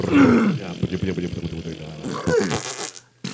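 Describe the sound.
A loud gurgling slurp of a straw sucking air at the bottom of an empty milkshake cup as someone slurps up the last of his milkshake. It rattles wetly for about three seconds, then cuts off with a short sputter.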